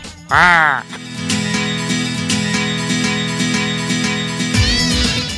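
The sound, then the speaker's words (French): A loud, warbling vocal squawk opens, a person mimicking a bird call, then gives way to a steady droning musical bed with soft rhythmic pulses and a brief chirpy flourish near the end. “Là-dessus, tu dois faire les oiseaux.”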